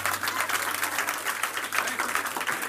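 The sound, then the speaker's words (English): A church audience claps steadily together in worship, praising and thanking God without a praise team singing, a dense, continuous patter of many hands at a moderate level, with a low steady hum underneath and no clear talking. “You can clap, you can pray, you can just worship.”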